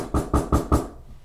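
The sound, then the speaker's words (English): Four firm knocks on a door in a quick, even rhythm, each a solid low thud with a short ring, then quiet; distinct, with no voices. “Oh, getting knocks at the door.”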